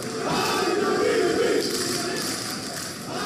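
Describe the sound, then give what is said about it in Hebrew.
A crowd at a town meeting in a large hall breaks into overlapping shouts and interjections, a dense, loud wash of many voices with a brief swell near the start, steady throughout. “יש כרגיל הרבה דיבורים, הבטחות. אני רוצה להרגיע אתכם. בקשות, קצת קריאות ביניים. שפע מחיאות כפיים.”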